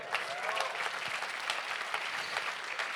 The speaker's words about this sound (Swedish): Amen, det är en applåd.